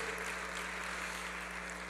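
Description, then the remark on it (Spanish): Steady applause from a church audience after a prayer, given to God, a dense crackle of many hands clapping evenly for two seconds, fairly soft, with a low electrical hum underneath and no voices. “Le ruego, si usted oró conmigo, le ruego, démosle un fuerte aplauso a nuestro buen Dios.”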